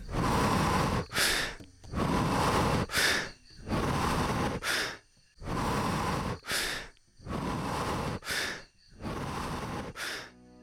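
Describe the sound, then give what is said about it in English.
Loud, fast breathing during an accelerated-breathing exercise: six forceful inhale-exhale cycles in a steady, driving rhythm, each a long rushing breath followed by a quick sharp one, with no talking. “And start with accelerated breathing again.”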